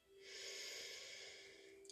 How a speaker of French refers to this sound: Prendre une profonde respiration